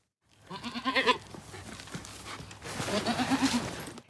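Four rented goats clearing scrub at a building site at Stette in Skodje bleat in quick, wavering calls, one loud burst early on and another cluster of overlapping bleats near the end, with some outdoor noise between.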